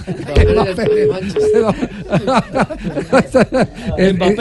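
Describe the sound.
A phone line hangs up, leaving three short, evenly spaced beeps of a disconnect tone that play faintly beneath lively talk and a bit of laughter.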